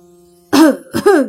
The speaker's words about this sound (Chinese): 宁无心在身后咳嗽一声